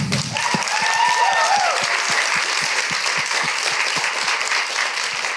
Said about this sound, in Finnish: Siitä voi tuota, niin, taputtaa, jos on samaa mieltä.